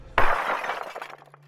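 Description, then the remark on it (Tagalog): A glass beer bottle held in the hand is dropped, hits the floor and shatters with a sharp, loud crash, followed by a brief scatter of tinkling shards settling before it fades out. “Napitabang ko yung bote ng serbesa na hawak ko”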